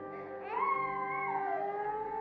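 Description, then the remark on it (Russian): A child's high, piercing cry rings out in one unbroken wail from distant compartments of a space station, its pitch rising and wavering before sliding back down, steady, with no talking around it. “Однако спустя мгновение он сменился пронзительным детским плачем.”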